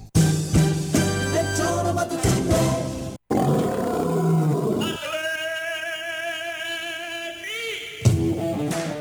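A lion roars loudly, with deep, rough, sustained bellows that break off briefly and then return in a long, wavering growl before a final burst.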